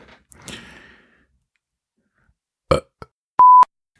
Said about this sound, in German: Ich muss ihn nochmal aufstoßen.